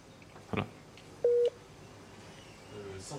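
A single loud electronic beep from a patient monitor's critical alarm, linked to oxygen saturation, a steady mid-pitched tone lasting about a quarter second, stands out over quiet room noise, with a brief dull knock shortly before it.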